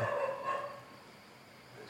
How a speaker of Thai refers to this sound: ส่วนที่เขาทำเนี่ยอย่างสุนัขมันเห่าเนี่ยมันก็มันก็ทำบาปของมัน เพราะมันทำเสียงรบกวนเขา